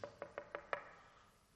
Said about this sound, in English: Knocked a couple times. There's no answer.